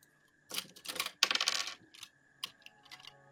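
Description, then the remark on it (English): Several dice clatter as they are scooped up and tumbled, a quick burst of sharp clicking followed by a few scattered rattles settling down, with no talking. “You don't have to use so many dice.”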